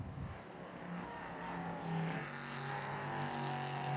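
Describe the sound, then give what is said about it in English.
The number six prototype race car drones past through turn six of a track during a three-hour race, its tone holding steady and rising slightly as it goes by, with a rough, buzzing roar and no voices. “There's the six heading through turn six, Rasmus Lind trying to stay up with Stephen Simpson”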